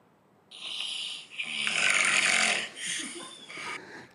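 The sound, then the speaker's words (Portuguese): A person loudly imitates rumbling, tractor-like snoring, a few long raspy snores in quick succession, with no talking. “Mas isso daí, porra, tu já roncava um, um bocado, Já, mas né? assim, irmão, igual um trator.”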